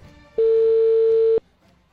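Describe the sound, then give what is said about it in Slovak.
A single steady telephone ringback tone sounds for about one second as a call is placed to the municipal office in Dubník, near Nové Zámky, Slovakia, loud and clear, with a sharp start and stop, followed by quiet line hiss. “Volám.”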